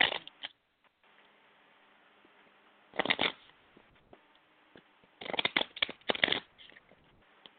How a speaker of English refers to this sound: I'm going to shuffle my oracle cards. Tell me to stop whenever you're ready.